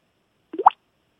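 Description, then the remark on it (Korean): A voice imitates two water drops falling with two quick mouth-made plops, the second rising higher in pitch, fairly loud in an otherwise silent moment. “물방울 음. 두개 떨어지는 소리”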